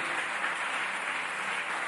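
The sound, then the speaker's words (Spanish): A church audience applauds the Lord during a morning service in a steady, dense wash of clapping that fills the room, sustained at an even level without a break. “Dele un aplauso al Señor en esta mañana. Fuerte ese aplauso.”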